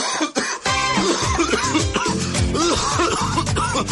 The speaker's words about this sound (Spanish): Oiga, ¿usted sabe qué es bueno para tos? Para esa tos, mijito, dejar de fumar.